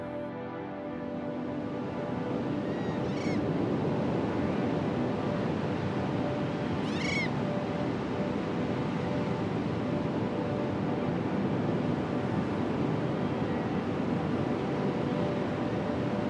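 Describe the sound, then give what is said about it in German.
A steady, broad wash of ocean surf rolls on without pause, loud, with two brief high chirps, likely birds, rising above the roar partway through. No one speaks. “Schließ für einen Moment die Augen und lausche den Wogen des Meeres.”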